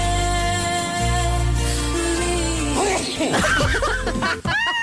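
A song plays loudly throughout, and near the end a sudden sneeze-like vocal burst cuts through it, with snickering, laughter-like vocal sounds mixed over the music.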